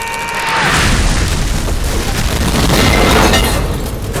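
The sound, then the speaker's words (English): A loud, sustained explosive boom fills the scene, a broad rumbling blast that swells after half a second and keeps roaring with crackling debris for several seconds, with no voices. “What do you think you'll do blowing up all roads like that?”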